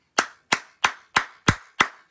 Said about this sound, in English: Clap it up for Brother Jakes.